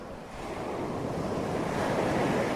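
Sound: sea waves and wind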